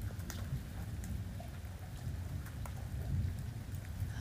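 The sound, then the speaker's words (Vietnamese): Steady rain patters throughout while a low, rumbling roll of thunder fills the background, continuous and moderately loud, with no voices present. “Mọi người nghe tiếng sấm không?”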